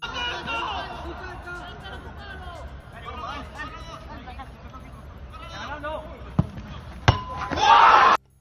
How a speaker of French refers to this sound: L'Alliance Salima a égalisé à la 91e minute sur un coup franc de Lemos dont le son s'apprécie particulièrement grâce à l'absence des supporters. Écoutez donc.